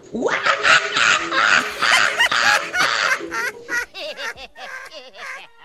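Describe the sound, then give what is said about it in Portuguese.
A human voice imitates a monkey mimicking a macaw, with rapid, loud, shrieking squawks and chattering bursts that trail into shorter warbling, rising-and-falling calls. “Eu sei imitar um macaco imitando uma arara.”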